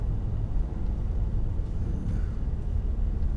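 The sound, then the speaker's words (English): Steady road rumble from inside a moving car getting out in front of a slow truck, a dense low drone of engine and tire noise holding even throughout, with no voices and no distinct pass-by swell. “I'm going to have to get out in front of this truck.”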